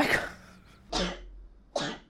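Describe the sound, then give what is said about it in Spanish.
Three sharp, breathy sneezes burst out in quick succession, each a sudden explosive puff of air with short pauses between, and no talking around them. “Salud.”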